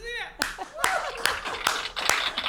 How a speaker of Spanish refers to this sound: Un aplauso para ella.